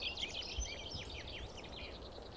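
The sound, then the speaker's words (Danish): A dunnock, a small drab brown-grey bird, sings from the top of a tree a fast, squeaky, high warble that runs continuously, fairly faint, over a low background rumble with no voices. “Det er en jernsbog.”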